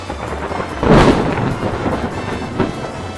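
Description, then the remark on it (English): A thunder crack from a sound effects library bursts out near the start and rolls into a broad, rumbling wash, with a second fainter boom later, over steady rain-like hiss. “No, but I, I have lightning.”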